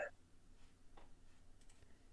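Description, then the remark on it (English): Faint, sparse clicks of typing on a computer keyboard, a few soft keystrokes scattered across a quiet background with a low steady hum. “You're typing.”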